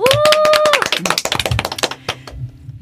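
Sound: applause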